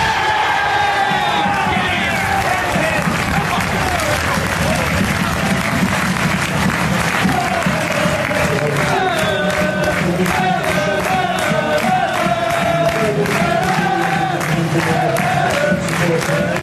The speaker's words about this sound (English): a lot of people had run down the front and were sort of cheering and celebrating with the players